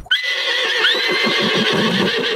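A horse gives one loud whinny, a high, shaky neigh that trembles rapidly and holds steady for a couple of seconds, with no talking.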